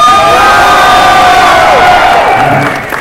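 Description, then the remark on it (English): An audience at a Star Wars: The Old Republic story panel cheers and whoops continuously, with high yells and shouts layered over a dense roar of voices that begins to fade only at the very end. “Come on, you guys can be way more excited.”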